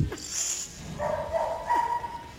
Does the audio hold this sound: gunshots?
no